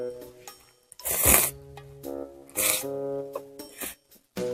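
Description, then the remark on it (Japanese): Noisy slurps of someone eating ramen noodles during a live stream, three or four loud bursts with short pauses between them, over soft music playing in the background. “まさかのラーメンライブです。本当に食べてます。ちょっと音すいません。”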